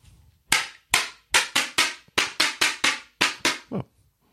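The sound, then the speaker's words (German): A cardboard hand clapper (Klatschpappe, called Happy Clap in English), brought back from a youth football tournament, is clapped about eleven times in quick, slightly uneven bursts, each a sharp, bright snap that decays fast, with a softer, duller final clap. “Um eine Klatschpappe.”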